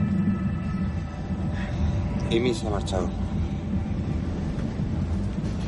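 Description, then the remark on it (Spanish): A steady low rumble of a moving train heading to Berlin, heard from inside the carriage, with faint metallic squeals and rattles, while a man speaks on his mobile phone over the constant interior noise. “Estoy en un tren yendo a buscarla a Berlín, a casa de su exnovio.”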